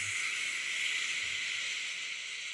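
A steady, even rush of sea-wave noise hisses throughout, smooth and continuous, with no distinct breaking waves and no voices: a white-noise recording of sea waves made for babies.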